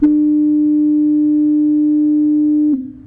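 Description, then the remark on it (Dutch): A single loud, low foghorn blast holds one steady droning tone for nearly three seconds, then cuts off abruptly and leaves a brief fading tail. “De misthoorn ken ik, dat is...”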